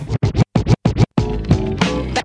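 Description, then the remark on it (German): A DJ turntable scratch: six quick, loud rhythmic bursts of scratched record, then a longer smeared backspin sweep with wavering pitch before a final short scratch. “Backspin. Backspin. Backspin.”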